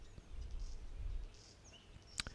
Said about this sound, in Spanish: Los pájaros supongo que se irán callando y se irán recogiendo. ¿Dónde coño duermen estos pájaros? Porque no se tiran toda la noche ahí en las en las antenas en forma de F.